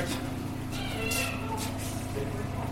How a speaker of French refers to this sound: a mon petit chien qui crie là-bas, mais c'est pas grave.